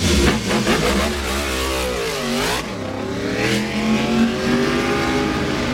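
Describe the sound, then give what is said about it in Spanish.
Motorcycle engines rev loudly, their pitch climbing and dropping in quick sweeps, with a steady engine drone continuing underneath throughout. “Las motos.”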